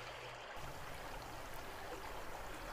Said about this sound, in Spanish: El río se adelantó de golpe.